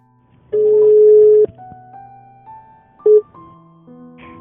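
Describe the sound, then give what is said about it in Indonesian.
An outgoing phone call rings: a steady electronic ringback tone lasts about a second, then a brief second beep follows, with soft sustained background music underneath and no voices. “kita telepon sekarang aja yuk biar kita dengar cerita dari dia”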